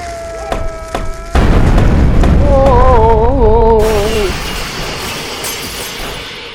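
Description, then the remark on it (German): A sudden, loud explosive blast erupts into a sustained, booming rumble like explosions in Call of Dogs, during a fierce battle in which Santa Claus is defeated, with wavering groaning voices rising over it before the roar gradually fades. “Explosionen wie bei Call of Dogs sind zu hören.”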